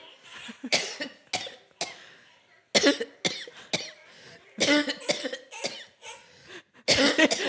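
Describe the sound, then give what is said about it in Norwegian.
A long fit of harsh coughing: about a dozen sharp coughs come in quick clusters separated by brief pauses, with no talking in between. “Host, da.”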